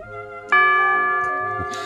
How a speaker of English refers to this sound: Well, there it is the two o'clock signal